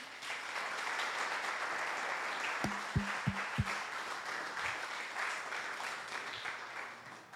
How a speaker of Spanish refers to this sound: Eso merece un aplauso. Yo no sé usted.